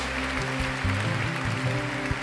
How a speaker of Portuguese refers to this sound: Dê uma salva de palmas ao Senhor nessa noite.